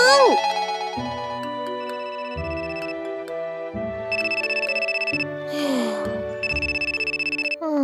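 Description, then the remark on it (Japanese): A telephone rings with a bright, melodic electronic tone, broken by bursts of rapid, buzzy trilling that repeat in steady cycles, fairly loud with no one talking. “らん他の電話を取らなきゃなんで一旦失礼しますにゃん”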